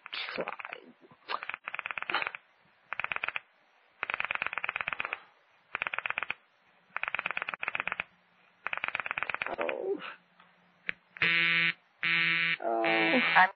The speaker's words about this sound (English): Sorry, Murray Hill 40599 is busy. I can hear it.